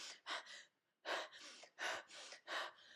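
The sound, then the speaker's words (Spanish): A voice imitates the rapid, agitated breathing of heat stroke: quick, loud breathy gasps in short bursts, about eight in three seconds with a brief pause, with no talking. “La respiración es agitada, ¿sí?”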